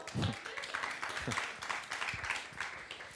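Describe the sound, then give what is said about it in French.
An audience applauds steadily for about three seconds before the final testimony at a gathering, a dense, even wash of many hands clapping at moderate loudness, with a few low voices murmuring underneath. “Oui, on peut applaudir, hein? Applaudissons.”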